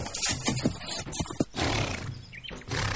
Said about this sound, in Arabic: اسمحوا لي نزقي الحصان اشرب انت وحصانك بالشفي والهني